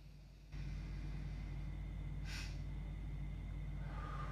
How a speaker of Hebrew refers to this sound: אז אני קודם כל, אני לוקח את ה... זה עובד בשבילי, אני לוקח את הנשימה האיטית הזאת